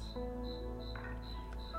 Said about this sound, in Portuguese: Vamos deixar o grilo aqui, que eu acho que, eu acho que sou eu que acordo esse grilo, hein?